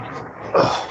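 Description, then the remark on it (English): A puppy, about 13 months old, gives a single short, high-pitched squeak, fairly loud, standing out against a quiet background for about half a second. “Squeaky, squeaky. I guess that's the dog there, right?”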